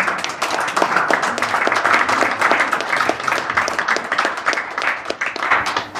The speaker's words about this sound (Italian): Prego, facciamo un applauso al professore.